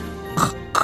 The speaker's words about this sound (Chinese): 这是猪的叫声。